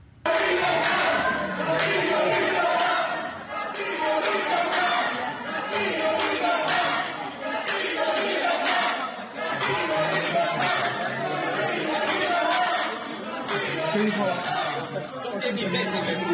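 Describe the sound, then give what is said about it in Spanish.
A loud crowd shouts slogans in the Congress of Peru, many voices chanting "Castillo en libertad" together in a steady, rhythmic surge that stays dense and forceful throughout with barely a pause. “De que cómo están gritando Castillo en libertad si es nuestra la causa de todos nuestros males actuales.”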